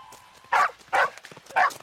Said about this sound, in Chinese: 可是远处突然传来了汪汪的狗叫声。